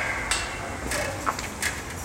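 Sharp metallic knocks ring out at irregular intervals over a steady outdoor hum, like hammering at a construction site that extends over the sidewalk; a few distinct bright strikes stand out from the background noise.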